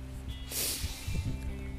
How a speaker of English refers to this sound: So, you can possibly hear I'm out here in the wind currently playing with my dog out in nature. It's um, intermittently chucking it down with a bit of sun and quite a lot of wind right now.